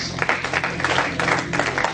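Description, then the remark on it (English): A crowd at a church service gives the Lord a hand clap of praise, dense, sustained applause, many hands overlapping into a steady wash of sound that stays fairly loud throughout the two seconds. “You guys can give the Lord a hand clap of praise.”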